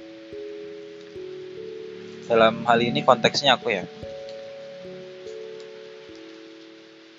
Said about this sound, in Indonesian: Disclaimer bahwa sore ini hujan deras setelah beberapa pekan gak hujan. Rasanya tenang, apalagi aku yang suka hujan.